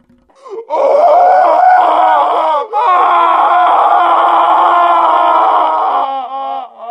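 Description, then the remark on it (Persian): A loud, sustained human scream from behind a stage curtain, strained and wavering, breaking off briefly for a breath before continuing at full intensity and trailing into a shaky moan near the end. “این یک فریاد بود و این فریاد همیشه بوده است و ما که همیشه بوده ایم چرا تا به حال آن را نشنیده ایم؟”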